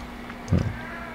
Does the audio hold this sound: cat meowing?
yes